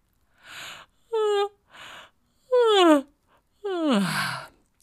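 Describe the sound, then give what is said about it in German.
A narrator imitates a fox's big, drawn-out yawn: airy breaths alternating with falling, moaning vocal glides that grow longer and louder toward the end. Clear, with no other sounds. “Er suchte sich ein Nachtlager neben der Schnecke und gähnte.”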